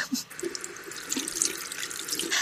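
A faucet runs steadily, water splashing into a sink with a continuous hissing rush, moderately loud, with no voices over it.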